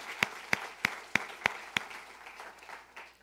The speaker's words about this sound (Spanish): Un, aplauso a nuestro buen rey, Dios.